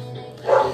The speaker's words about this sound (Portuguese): Tem um cachorro latindo. Sempre tem alguém para me atrapalhar.